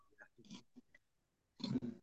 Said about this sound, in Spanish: Perdón, perdón, me estoy, me estoy ahogando con la comida.